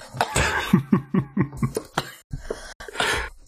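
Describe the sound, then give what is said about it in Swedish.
A loud fit of sputtering coughs, about eight rapid bursts in a row, trailing into a few ragged coughs and a harsh breath, from someone who has choked on a drink of Red Bull. “Jag satte Red Bull i halsen.”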